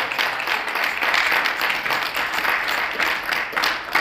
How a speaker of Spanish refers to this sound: Así que vamos a darle un aplauso a esas damas, porque comimos porque unas damas se movieron.